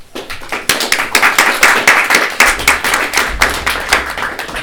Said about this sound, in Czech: Prosím o potlesk.